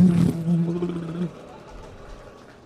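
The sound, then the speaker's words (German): A voice imitates a drumroll with a low, rolled buzzing sound held for just over a second, fairly loud, then it stops and only faint room noise remains. “Normalerweise hört man da immer so einen Trommelwirbel.”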